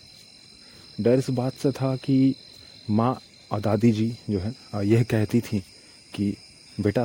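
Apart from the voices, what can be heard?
crickets chirping at night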